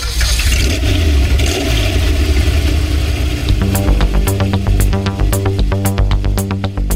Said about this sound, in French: Je commande la mise à feu du moteur 12 cylindres et on part.